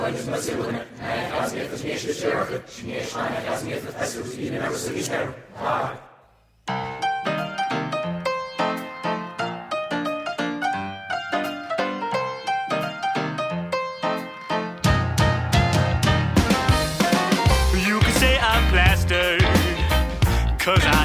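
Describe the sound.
After a few seconds of someone talking, a song's intro starts with quick, bright, rhythmic notes, then a louder, fuller band sound crashes in about two-thirds of the way through.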